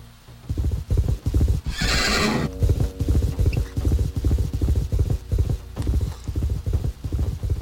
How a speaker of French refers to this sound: Donc c'est un paysage avec un château et un cheval euh, qui s'approche du château.